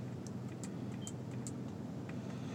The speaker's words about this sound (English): There, the truck says hello again.